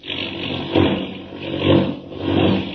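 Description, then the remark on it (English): A loud, droning airplane engine roar surges in repeated waves, swelling and falling about every second as if straining hard, as the plane takes a sudden plunge into a tailspin through the dark and the snow, with no voices over it. “The plane took a sudden, sickening plunge, and Clark Kent vanished.”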